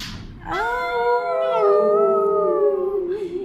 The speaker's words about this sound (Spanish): Dicen que un muerto aparece nomás se llega la noche, que a veces se oyen aullidos